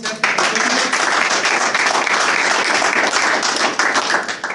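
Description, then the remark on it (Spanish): Steady audience applause for a doctor, a dense wash of many hands clapping at once, sustained and fairly loud for several seconds without any voices rising above it. “un fuerte aplauso para el doctor.”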